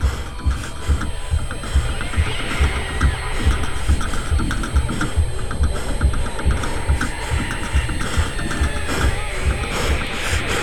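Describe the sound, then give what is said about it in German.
A thin, high-pitched ringing in the ears holds steady above a dull, muffled throbbing that pulses rhythmically low down, wrapped in a busy mechanical clatter; the whole texture stays dense and fairly loud throughout. “Das Pfeifen in meinen Ohren klingt ab. Das dumpfe Pochen verschwindet.”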